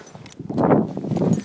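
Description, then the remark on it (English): Someone puts on a hat and coat: a second or so of soft fabric rustling and shuffling, loudest in the middle, with no voices. “excuse me, I'm putting on my hat and coat and getting ready to go walk the dog.”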